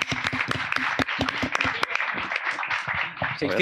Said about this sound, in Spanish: mini aplauso, aunque sea por los 600 kilómetros de Milcar